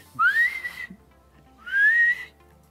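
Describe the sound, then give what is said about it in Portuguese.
A person in the countryside whistles to call turkeys that have already gone to sleep: two clear, rising whistled notes, each about half a second long, separated by a short pause, fairly loud with no talking. “Se assovia, eles assumiam de volta.”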